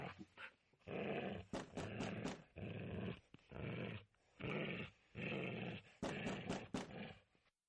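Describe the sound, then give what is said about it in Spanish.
A dog named Highball, on a leash, growls in a series of loud, rough bursts, each lasting under a second with brief pauses between, continuing steadily with no voices present, as it stops in front of a door in a top-floor hallway. “Highball comienza de nuevo a gruñir y se para delante de una puerta.”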